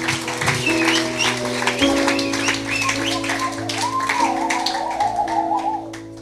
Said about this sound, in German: Komm on, lass einmal einen Applaus geben.